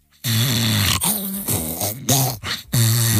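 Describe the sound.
A voice imitates a phone vibrating at night, with a low, buzzing hum, delivered as four loud bursts separated by brief gaps, each lasting under a second.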